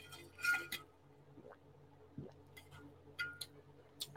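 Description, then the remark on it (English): Quiet glass handling: a few light clinks and soft taps spread over a few seconds as someone sips water from a glass, over a low steady hum, with no talking. “Hold on, let me take a sip of this water.”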